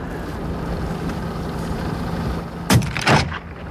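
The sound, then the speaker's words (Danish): A small boat moves slowly across the water toward two ringed seals, a steady low rumble and broad wash of noise, then two brief splashing surges near the end. No one speaks. “Og han sejler med lav fart hen mod de to sæler, der ligger og leger.”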